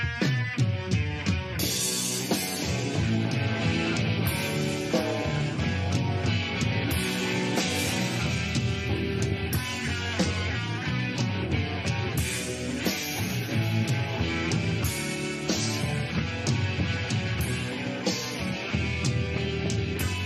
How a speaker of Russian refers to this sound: Я думаю, вы слышите, что концертный звук тут гораздо лучше, чем на многих даже студийных записях летого конца 80-х. Дело в том, что этот концерт снимает телевидение.